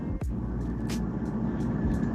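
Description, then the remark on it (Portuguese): A washing machine runs with a steady, low, rumbling drone at an even level, broken by a brief sliding thump near the start and a few faint swishes and clicks, with no voices. “Parece é uma máquina de lavar. É uma máquina de lavar aí.”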